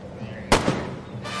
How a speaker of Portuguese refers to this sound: Ele atira contra você. Eita porra. Tá. Um tiro pega de, de raspão no, no teu ombro.